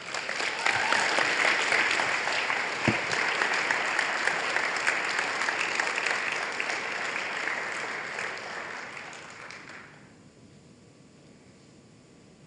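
Sustained applause from an audience, a dense crackle of many hands clapping steadily for about ten seconds before quickly thinning out and fading away.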